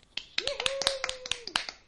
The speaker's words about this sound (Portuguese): Palmas para o chefe.